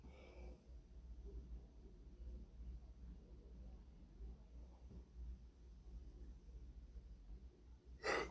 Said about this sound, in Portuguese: Vocês me dão licença de eu bocejar um pouco?